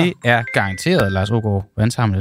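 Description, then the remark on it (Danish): A phone rings with an incoming call, a thin steady electronic tone sounding under a man's continuous talking for over a second before cutting off. “Hov, og nu er der et nummer, der ringer.”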